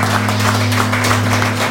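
A crowd applauds steadily throughout, a dense, loud crackle of many hands clapping at once, with a constant low hum running underneath and no voices.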